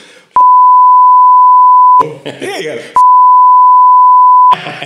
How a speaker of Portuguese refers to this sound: Está eu gostava de saber, eu peço que o editor depois coloque aqui o, uh, o apito sim. Já agora, vamos aproveitar aqui, dá trabalho ao editor.